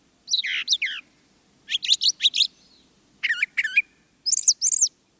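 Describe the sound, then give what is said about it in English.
A brown thrasher sings a series of rich, varied phrases, each phrase repeated twice in quick doubled bursts with short pauses between, loud against a quiet background. “While mockingbirds usually repeat a song or phrase three or more times before moving on, brown thrashers tend to repeat a phrase only twice.”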